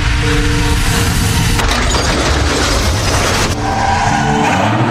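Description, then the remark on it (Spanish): A car travelling at 60 km/h on a road with a 50 km/h limit brakes hard, its tires skidding in a loud, continuous screech with rough engine and road noise underneath, lasting the full few seconds with no voices. “Estas marcas indican que frenó con fuerza.”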